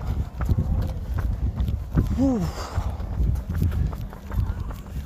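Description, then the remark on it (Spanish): Quick, steady footfalls of someone running without stopping pound for several seconds, with rustling wind noise and a brief high tonal chirp partway through. “a ver cuánto aguantamos corriendo sin parar, ¿no?”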